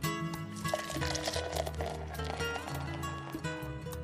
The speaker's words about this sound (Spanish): Sírveme otra.